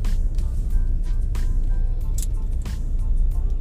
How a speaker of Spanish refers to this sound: Y aún así me estoy comiendo este tráfico.